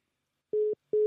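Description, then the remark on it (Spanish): A telephone busy tone after the other party hangs up the call: short, steady mid-pitched beeps repeat at an even pace, clear, with silence between them and no voices. “Primero me llamó con el teléfono alto y ahora me cuelga.”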